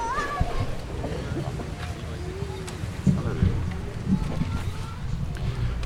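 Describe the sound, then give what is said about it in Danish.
Quick footsteps of a person running inside to get coffee refilled hurry away and fade out, heavier thumps breaking through midway, over a steady background of indistinct voices and wind buffeting the microphone, in H.S. Ørstedsparken park on a warm, windy day. “Så hvad siger du til, at jeg lige øh, løber ind og får fyldt op?”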